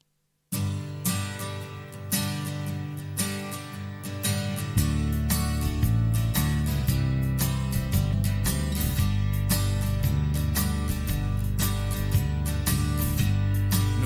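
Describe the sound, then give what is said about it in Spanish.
A song's instrumental opening plays loud, with a steady percussive beat and layered melody; the arrangement thickens with heavier bass a few seconds in. No one sings or speaks. “Es una canción que se titula ….”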